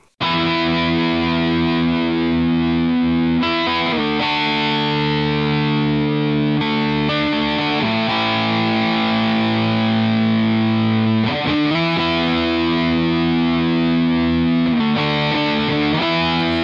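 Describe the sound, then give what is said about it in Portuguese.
Loud, heavily distorted rock guitars chug through sustained power chords, shifting chords every few seconds over a dense, steady wall of sound with no vocals. “Vamos fechar com elfos, deixa o rock rolar.”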